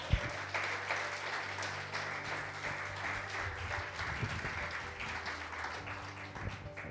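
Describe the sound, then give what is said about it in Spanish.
An audience breaks into steady, dense applause for God, many hands clapping together in a sustained wash that holds at an even, fairly loud level for the full stretch, with a low hum underneath. “Dale un aplauso a Dios.”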